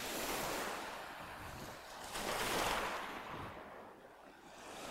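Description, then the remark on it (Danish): Waves wash and break continuously against the shore in harsh winter weather, a broad rushing surge that swells louder around the middle, with gusty wind noise buffeting the microphone throughout and no one speaking. “Så er der noget fedt at komme ud af sådan noget det man kalde sådan barsk vintervejr. Og så mærke de her bølgeskuld.”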